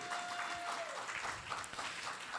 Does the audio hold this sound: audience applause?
yes